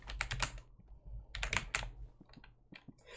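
Rapid, uneven bursts of computer keyboard typing, with clusters of sharp clacks in quick succession separated by brief pauses, fairly quiet over a low steady hum.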